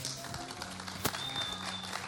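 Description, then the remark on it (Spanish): A crowd in the Sala Julián Carrillo, broadcast on 96.1 FM, claps steadily in a warm round of applause, a dense wash of many hands at moderate volume with no pauses and no voices on top. “Un cálido aplauso”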